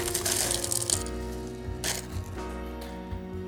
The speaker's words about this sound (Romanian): Am adăugat și niște gheață nugget, Ice Division.